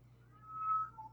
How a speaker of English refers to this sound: Sorry guys, if you can hear my cat in the background. Yeah. Um, he's very unhappy. Yeah, he'll eat in about 25 minutes and then he won't be oh, unhappy oh, anymore.